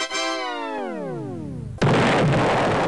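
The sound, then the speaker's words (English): A steadily falling whistle-like tone glides downward before the demolition explosion of the cooling towers of the defunct Didcot power station suddenly erupts into a loud, sustained roar of rumbling collapse. No one speaks. “The Didcot skyline has for many years been dominated by the cooling towers of the now defunct power station”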